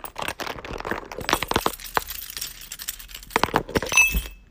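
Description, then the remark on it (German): Bright metallic clinks and jangles in irregular bursts from a bunch of keys being shaken, with a few sharper clatters and brief quiet gaps between them. “Und zwar ist das mein Schlüssel hier, ASMR.”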